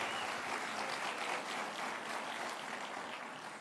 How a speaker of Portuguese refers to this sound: Dê para Jesus mais uma forte, forte salva de palmas.